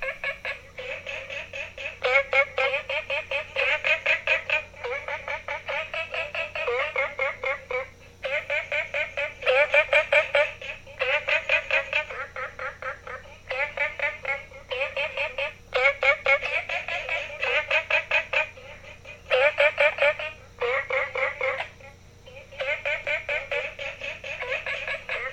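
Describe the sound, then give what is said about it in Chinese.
A loud, dense chorus of frogs calling beside the Green House (绿屋) guesthouse, in rapid, buzzy trills that come in repeated bursts with short gaps, mid-pitched and ringing almost like a telephone, continuing for the whole stretch. “这个是青蛙在绿屋民宿旁边的声音。”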